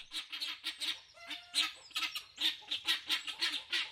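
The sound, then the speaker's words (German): Vulturine guineafowl give a steady run of harsh, high, rasping calls, about three or four per second and fairly loud, with a brief thin whistle partway through and no talking. “Geierberlhühner sind echte Hingucker.”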